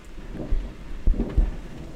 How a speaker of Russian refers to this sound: На фоне гром, идет дождь. Мы с Мунмоном ждали когда дождь прекратится, но пошел еще сильнее ливень, поэтому нам придется подождать прогулки.